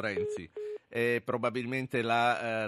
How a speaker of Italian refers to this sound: telefonata, probabilmente è un eufemismo, la telefonata è caduta